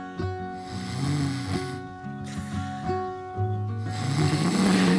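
Loud snoring from a person sleeping off Covid, in steady rhythmic cycles, each rough, droning breath rising and falling in pitch, with no talking.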